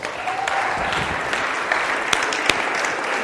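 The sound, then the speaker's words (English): A crowd applauds steadily, a dense wash of many hands clapping at an even level, with a few sharper individual claps standing out near the end. “We can applaud them. That'd be great.”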